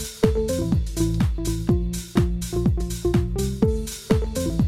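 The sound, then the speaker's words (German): A punchy synth organ plays a bouncy, syncopated house riff of short stabbed chords over deep, thumping bass notes that drop in pitch, repeating steadily and loudly with no voices. “Ich spiele mal eine kleine Hommage an ….”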